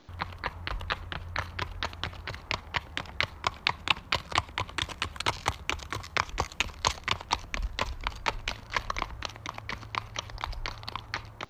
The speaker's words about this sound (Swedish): Så hästen sätter alltså ner vänster bakben, vänster framben, höger bakben och höger framben. Mm. Och det är ju samma fotförflyttning som man har i skritt. Mm. Så om vi lyssnar på ett ljudklipp här på skritt så låter det så här.